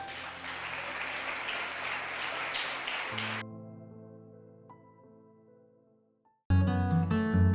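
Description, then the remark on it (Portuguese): An audience claps loudly together for the Lord for a few seconds, the applause cutting off into soft sustained musical chords, before brighter music bursts in at the end. No one speaks. “Então aplauda o Senhor bem forte.”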